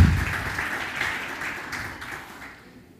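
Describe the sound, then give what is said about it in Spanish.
A crowd applauds the Lord with dense, steady clapping that starts strong and gradually fades away over about three seconds, with no voices heard. “Yo no sé tú, pero a mí me antoja darle un aplauso al Señor por lo que ha hecho por nosotros.”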